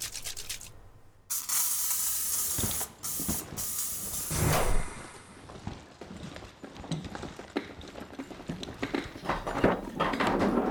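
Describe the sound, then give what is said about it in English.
A loud hiss of spray runs almost continuously after a brief pause, broken into uneven bursts and mixed with light clattering and knocking, as spray is applied after spot welding and smoothing filler. No one speaks. “get some spray action going, then we're out of here.”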